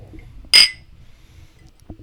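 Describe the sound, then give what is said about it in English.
A single bright, sharp clink of glasses touching in a toast over a Kentucky Monk drink, ringing briefly before fading into quiet room tone. “Cheers.”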